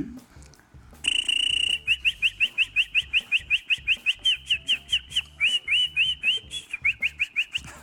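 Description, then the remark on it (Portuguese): A person whistles in imitation of a bird: a steady tone, then a long run of quick, rhythmic chirping whistles, some rising and falling, loud with a low background murmur. “faz o passarinho, faz o passarinho.”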